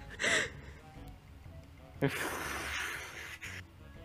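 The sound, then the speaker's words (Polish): A voice imitates rustling leaves with a brief breathy burst, then a longer, steady hissing whoosh lasting over a second, moderately loud. “Odgłos szumiących liści.”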